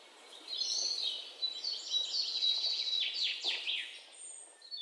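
A busy chorus of high, twittering bird chirps and trills runs continuously for a few seconds as a segment transition effect, bright, with no talking over it.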